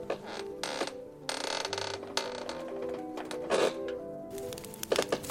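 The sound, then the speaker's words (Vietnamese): Wooden classroom floorboards creak and groan in a run of irregular, drawn-out squeaks, fairly loud, with no voices over them. “Bà ở lại lớp học để tập đàn piano, sàn phòng học bằng gỗ kêu cót két.”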